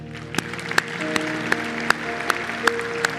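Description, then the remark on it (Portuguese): An audience claps together for the men in a steady rhythm, about eight sharp, loud claps in a row, over a sustained musical tone playing underneath. “Eu queria que a gente aplaudisse agora os homens.”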